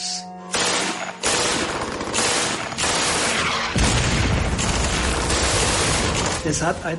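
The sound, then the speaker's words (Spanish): An MG-42 machine gun, firing at about 2,000 rounds per minute, fires long, rapid bursts, a dense tearing saw-like rattle that runs almost without pause, loud, with brief breaks between strings of shots. “La ametralladora MG-42 era un arma fantástica.”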